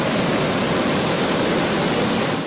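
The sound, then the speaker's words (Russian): A loud, steady roar of rushing floodwater fills the whole clip, a dense continuous wash of churning river noise with no voices and no breaks, from a river flooding in western Ukraine after about a week of rain. “Собственно говоря, это то, что сейчас происходит на западе Украины из-за...”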